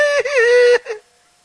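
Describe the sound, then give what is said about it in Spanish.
A voice mimics a crying wail: one loud, high, wavering whine lasting under a second, followed by a short sobbing catch, then silence. “Y comienza a chillar.”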